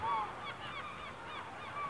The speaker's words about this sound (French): Telle une voûte en mouvement, le ballet des mouettes emplit le ciel d'une symphonie de rires, annonciateur de festin.